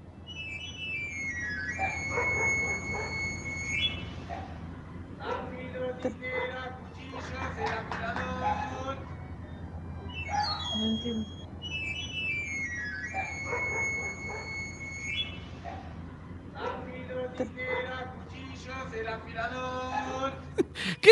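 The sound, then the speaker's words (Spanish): A knife sharpener's street whistle runs up and down its scale several times, clear, recorded at the front door of a house, while people talk intermittently over a low background hum. “Eh, eh, creo que es un afilador, no sé, pero.”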